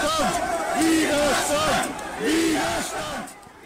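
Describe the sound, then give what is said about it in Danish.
A large protest crowd, at demonstrations of about 10,000 people against a law requiring a corona pass at work, chants "freedom" in loud, rhythmic unison. The repeated slogan rises and falls in waves over a dense roar of many voices. “10.000 øh, personer ifølge Reuters, og kampråbet skulle angiveligt have lyttet frihed, frihed.”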